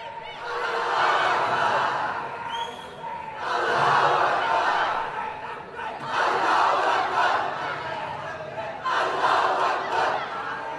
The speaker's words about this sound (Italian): Cioè questi stanno urlando Allah Akbar in piazza a Monfalcone con la sindaca incazzata nera, sindaca della Lega,